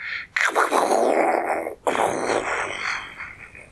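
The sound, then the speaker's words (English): A voice imitates a thunder drum being banged as hard as possible with a big stick: two long, breathy, rumbling bursts, the first cut off abruptly before the second rolls on and slowly fades, fairly loud. “And immediately she took up the big stick that you banged the thunder drum with, and she banged it as hard as she could”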